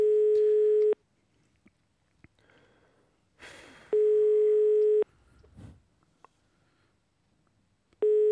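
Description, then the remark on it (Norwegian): A telephone ringback tone sounds in steady, loud bursts about a second long, separated by quiet gaps of roughly three seconds, with faint rustling and handling noise in between, while a call is placed to a 44-year-old cleaner on Christmas Eve. “så skal, vi, ringe til eh, en vaskedame på 44 år”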